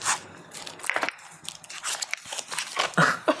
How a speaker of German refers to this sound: Äh, dann äh, würfel mal auf Nachforschung.